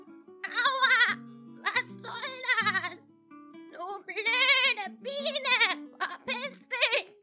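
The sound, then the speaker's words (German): A goat, stung on its shorn head in a fox's den, bleats over and over in quick succession as it jumps up and runs off: a string of wavering, quavering cries with brief gaps between them, loud. “Sie schrie und lief wie tolle die Welt hinein.”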